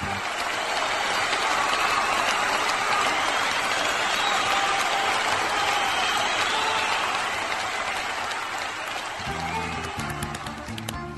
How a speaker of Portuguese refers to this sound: Aê, palmas!